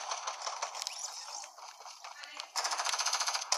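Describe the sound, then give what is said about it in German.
Video game gunfire rattles in dense bursts throughout, ending in a louder, rapid volley of automatic shots. “Hier wird schon mal übelst viel geschossen.”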